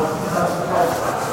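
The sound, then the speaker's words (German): A steady murmur of many people talking at once on a Monday, an indistinct crowd babble with no single voice standing out, holding an even, moderate level throughout. “Man hört hier auch im Hintergrund jetzt die zahlreichen Menschen sprechen.”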